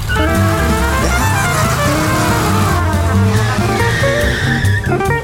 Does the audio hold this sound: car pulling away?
yes